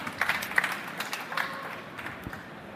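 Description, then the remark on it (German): A short, modest round of applause from a small group at the BiPRO congress at the DKM in Dortmund, welcoming presenters of a talk. Scattered overlapping claps at a moderate level thin out toward the end. “Genau, kleiner Applaus.”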